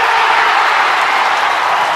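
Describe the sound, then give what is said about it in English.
A dense, steady round of applause for Dr. Bonnie Henry, many hands clapping together in a continuous loud hiss-like roar that holds at an even level throughout, with no voices. “You get a round of applause, straight up.”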